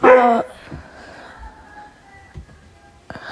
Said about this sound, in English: Sorry, that's my dog. This is my dog, Aki.